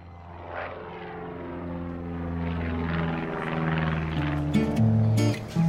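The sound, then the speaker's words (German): A propeller airplane, the Pan Am flight from Miami, arriving at the airport of Havana, Cuba, in 1928; its droning engine hum builds steadily louder with layered buzzing harmonics and a rising, wavering tone near the end. “Auf dem Flughafen von Havanna begrüßt ein freundlicher Mann in einem zerknitterten Leinenanzug die Passagiere des Pan Am-Flugs von Miami.”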